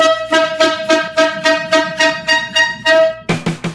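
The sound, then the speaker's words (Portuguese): A loud, buzzy horn honks in a steady rhythm, about seven evenly spaced blasts, then ends with a quicker flurry of short toots. No voices are heard. “Então vamos terminar esse primeiro bloco e vamos entrar para nossa corneta aleatória desse episódio 56.”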